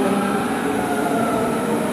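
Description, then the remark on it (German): A commuter train pulls into Bornholmer Straße station with a steady, loud rumble of wheels and machinery, continuous, with no voices over it. “Ähm, ups, was kommt denn da? Bitte keine Schönefelder.”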